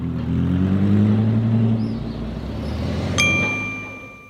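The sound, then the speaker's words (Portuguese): A car engine hums and rumbles past outside, its low drone swelling and then easing away, followed by a single bright metallic ding that rings out briefly. “Qual é a placa do próximo carro?”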